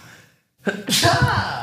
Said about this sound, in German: Und wir können eigentlich auch sagen, ja. Gesundheit